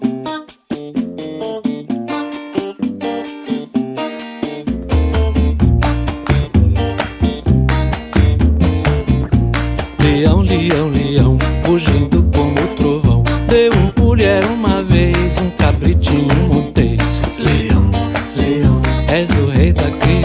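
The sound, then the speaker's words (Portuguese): A Brazilian popular song with a male singer opens on light, rhythmic plucking, then a deep bass and fuller band join after a few seconds, playing steadily and loudly to the end. “Mas agora é hora de dançar e conhecer a parte musical desses poemas.”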